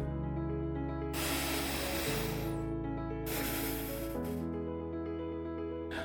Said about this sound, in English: Now, let's take another deep breath.